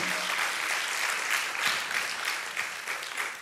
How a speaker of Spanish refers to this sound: Dale ese aplauso, Señor. Dáselo fuerte.